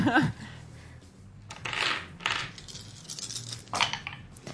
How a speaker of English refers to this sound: I like how you store your dice in the dice tray and then roll out of the dice tray. As you say that, I'm specifically taking them out of the dice tray.